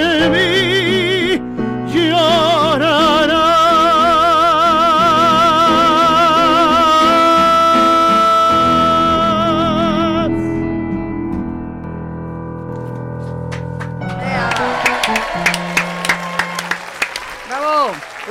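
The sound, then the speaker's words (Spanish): A studio audience bursts into applause, dense clapping rising toward the end after a sustained, vibrato-laden sung melody with backing music fades out. “gracias a nuestro público aquí presente que nos hace favor de aplaudir.”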